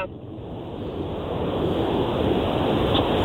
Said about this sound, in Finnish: Se on tämä. Mutta tuota, se on tämä virtava vesi. Kyllä, Joo, virtava vesi.